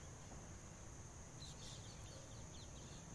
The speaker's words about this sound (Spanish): de los pajaritos, de los grillos, que aquí ya son las 6 de la tarde, ya empieza a oscurecer.